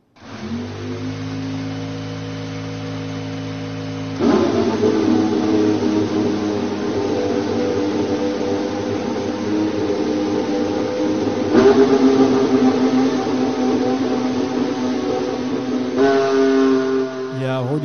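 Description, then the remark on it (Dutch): The Mercedes engine of a new McLaren Formula 1 car, started for the first time in Woking, rumbles at a steady idle, then revs up in three sharp steps, each surge louder and harsher. Loud, with no voices. “Ja, luister even mee naar een fragmentje waar je kan luisteren naar de nieuwe McLaren met Mercedes motor.”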